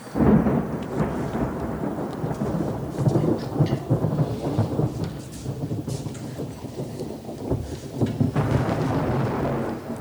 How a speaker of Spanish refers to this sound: Han pasado varios días. Atardece. Algún que otro relámpago presagia la tormenta.